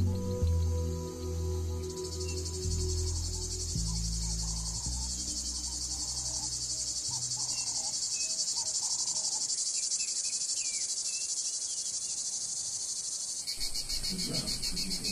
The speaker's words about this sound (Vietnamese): Nó sẽ phải lột bỏ lớp vỏ để biến thành con ve sầu và bắt đầu cất tiếng hát.